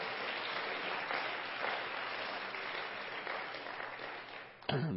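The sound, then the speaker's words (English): A church audience claps together, giving themselves a hand, in a steady, dense wash of applause that holds for several seconds, then tapers and cuts off near the end. “And so, everybody, just give all of yourselves a good hand clap and a good pat on the back today.”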